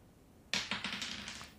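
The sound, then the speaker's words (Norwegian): A game master rolls dice across a hard surface in a quick burst of sharp, rattling clicks that start suddenly and fade over about a second, with no voices. “Spillmester triller terninger!”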